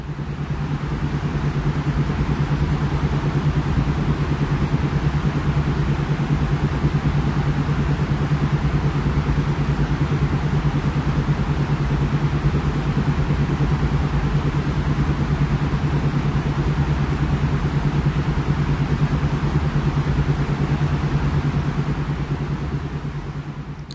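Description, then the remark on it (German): Sleep beats: a steady, unchanging low drone with a sustained humming tone over soft rumbling noise, holding an even loudness throughout with no voices. “Und das sind dann die Schlafbeats zum besser schlafen. Die klingen dann so.”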